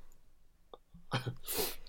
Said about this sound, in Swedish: Kan meddela våra lyssnare att jag nös så kraftigt så att min snus åkte ut